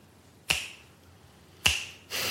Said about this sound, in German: Das heißt, der Moment jetzt ist sofort weg. Ist ein Fingerschnipp.